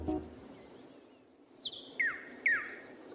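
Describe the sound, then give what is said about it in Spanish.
A long-billed wren (Cantorquilus longirostris) sings three clear, downward-sweeping whistled notes spaced about half a second apart, distinct, over a faint steady high-pitched insect-like hum. “Cantorquilus longirostris.”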